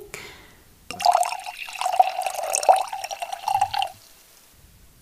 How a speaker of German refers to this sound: Und äh, weil Wein da natürlich auch äh, eine gewisse Rolle spielt, weil der gehört in Kaltern zum süßen Leben ja einfach dazu, ähm, schenke ich mir jetzt noch schnell ein schönes Glas kalterer See ein, bevor wir loslegen.